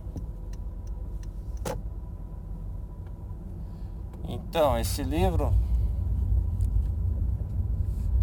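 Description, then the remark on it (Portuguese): Steady low engine rumble from inside a car moving through heavy traffic, with faint clicks early on and a man talking briefly near the middle over the constant road noise. “Tá tudo cheio, tá tudo cheio aqui. Tá um senhor trânsito aqui, bicho.”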